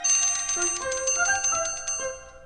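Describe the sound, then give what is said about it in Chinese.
A school class bell, shaken by hand by the koala teacher to start class, rings continuously for a couple of seconds, a bright metallic jangle of rapid repeated strikes with sustained ringing tones and no voices. “过了一会儿，树袋熊老师摇响了上课铃。”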